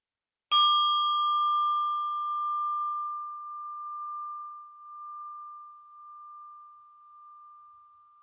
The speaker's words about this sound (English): And I'm inviting the bell to end this practice.